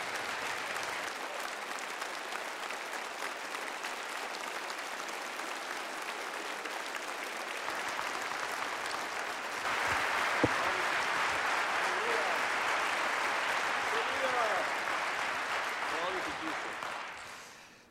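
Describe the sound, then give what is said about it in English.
An audience applauds steadily for about sixteen seconds to welcome a man as he comes up to the front, a dense wash of clapping that swells louder partway through, with a few scattered cheers, before fading out at the end. “let's just give him a, a warm welcome of applause and, and really bless him.”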